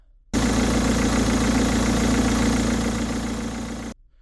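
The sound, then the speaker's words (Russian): Monster truck engines roar loudly and steadily as the trucks wait at the start of a race on an ice track, a deep rumbling drone that starts abruptly, holds for several seconds, then cuts off sharply. No voices are heard. “Комментатор произнес вступительную речь, и монстры-траки были уже наготове — они ревели своими мощными моторами и ждали старта.”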